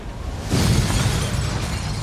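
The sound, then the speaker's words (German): A loud explosion erupts suddenly at dawn after a brief low hiss, its deep boom rolling into a sustained rumble and crackling debris that lingers without dying away. No voices. “Plötzlich durchdringt eine Explosion die Stille.”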